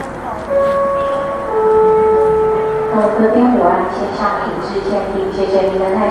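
An announcement chime at Taipei airport in Taiwan rings out in a few sustained, ringing tones that step down in pitch, heard over the steady murmur of a busy crowd.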